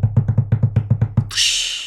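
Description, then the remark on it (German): A quick hand drumroll of about ten even thumps on a surface, fairly loud, ending in a bright hissing crash-like swell. “Also ich mach, mach mal sozusagen Trommelwirbel.”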